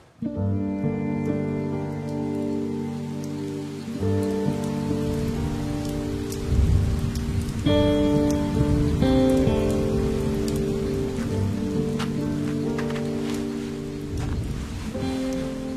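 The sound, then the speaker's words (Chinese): Light, cool drizzle falls steadily under a banyan tree, a soft continuous patter with scattered crisp droplet ticks, layered over sustained mellow tones that shift every few seconds. No one speaks. “细雨微凉，身影成双”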